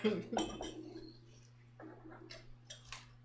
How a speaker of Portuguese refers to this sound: Peraí que eu vou brindar também. Um brinde aí, ó.